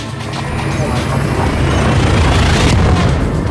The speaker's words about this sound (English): Engaging hyperdrive.